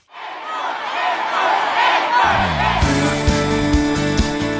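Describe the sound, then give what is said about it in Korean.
A large concert crowd roars, shouting and cheering loudly; partway through, band music with a steady beat starts playing over the ongoing crowd noise. “목이 터져라 외치고 듣고 싶었던 이 소리.”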